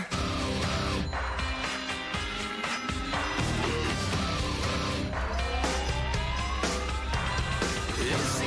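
A loud rock song plays continuously with a dense full-band sound, driving drums and guitars, and a slowly rising, gliding guitar tone sweeping upward over the mix. No one talks over it.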